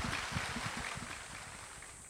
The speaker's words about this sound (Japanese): 日比谷公園でいつの間にかセミたちが鳴き始めていました